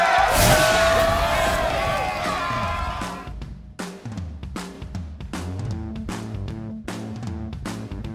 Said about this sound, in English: And with that being said, let's go ahead and hit the buzzer. It's the final buzzer.